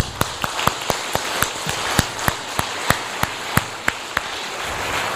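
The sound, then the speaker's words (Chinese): Steady, dense applause from a Christian audience for their guests, with sharp individual claps standing out at a quick, regular beat throughout. No one speaks. “其实今天哦，他们才是我们的贵宾，我们可不可以给他们最热烈的掌声？”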